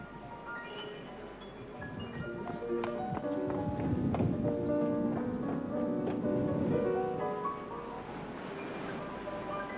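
Pigs squeal and grunt in a busy, overlapping chorus that grows louder through the middle and then eases off slightly, with no one talking.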